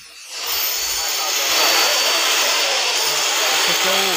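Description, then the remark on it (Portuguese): Construction machinery working at a school roars loudly and steadily, a dense mechanical noise that swells after the first half-second and holds throughout, with faint voices briefly audible underneath near the end. “É isso aqui é o barulho da, da, das máquinas trabalhando lá no, no, no, no colégio João Silveira e não tem como nenhum aluno estudar com um barulho desse, né?”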